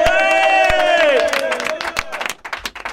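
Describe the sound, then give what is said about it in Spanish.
A live crowd of radio listeners celebrating radio day cheers and shouts loudly on request, voices overlapping in a sustained whoop, while scattered clapping breaks through and the noise gradually thins into looser applause and calls. “Estamos aquí rodeados de oyentes que han venido a celebrarlo y vamos a hacer como en los conciertos de, de rap. ¡Dadme un poco de ruido!”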